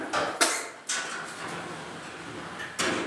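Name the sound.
sliding door being closed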